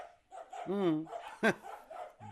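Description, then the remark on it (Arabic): A dog gives a drawn-out, wavering yelp followed by one sharp, loud bark, with faint voices murmuring in the background. “وقول كلبك يسكت ينبح ينبح ينبح ينوزا لا تيك مرة أخرى ينبح شلتي حيوان مسكين بك ما يعرف شيء”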